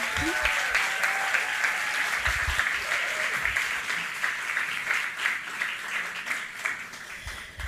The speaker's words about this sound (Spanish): los invito a pasar adelante con un gran aplauso, por favor.